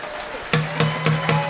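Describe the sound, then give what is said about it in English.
A gavel bangs four times in quick, evenly spaced succession, each crack sharp, with a steady low hum lingering underneath after the first strike. “This is the sound of a gavel.”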